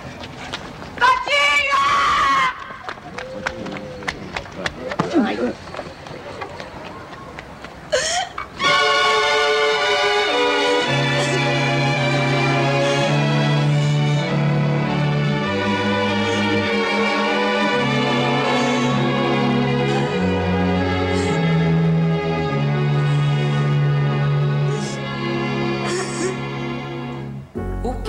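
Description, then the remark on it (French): A Brazilian song in its original version, opening with a few seconds of rough, noisy commotion before steady, loud music takes over with sustained chords and a moving bass line. “Eh, mais c'est bien la version originale que nous allons écouter.”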